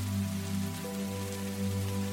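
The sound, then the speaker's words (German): Raindrops patter steadily against a window pane in a dense, continuous hiss, with a low, constant hum running underneath. No one speaks. “diese, diese Regentropfen, die da hunderte von Metern vom Himmel fallen und hier an die Scheibe klatschen.”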